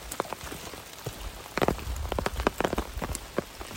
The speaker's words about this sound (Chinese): 大家听到我的雨声的滴滴答答是在我的那个雨伞上头。我们就是漫步在雨中，挺好的。